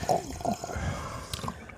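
Someone slurps hot coffee, with a couple of short, wet sucking sips over about two seconds against a faint background.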